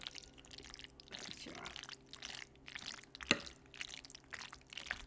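Thick, wet squelching and sloppy smacking as a spoon stirs a dense feta paste in a bowl, irregular and fairly soft, with one sharp clack of the utensil against the bowl partway through.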